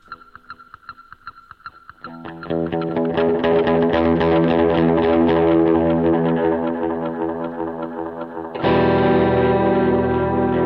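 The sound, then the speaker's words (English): Electric guitar played through an effects pedal board: a few clean, ringing picked notes, then loud distorted chords that sustain and swell, shifting to a brighter, harsher tone near the end. “There's my pedal board for you guys.”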